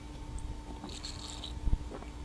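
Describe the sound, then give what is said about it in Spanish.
Someone quietly sips mate that has gone cold through a straw, a soft airy slurp and gurgle lasting about half a second, followed by a faint dull knock. No one speaks; a low steady hum sits underneath. “Me tomo un mate y repasamos.”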